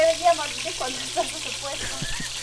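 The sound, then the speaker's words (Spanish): Meat sizzles steadily in a hot pan, a continuous crackling hiss that fills the background while voices murmur faintly over it. “bueno, están escuchando ah, el, la carnecita se está friendo.”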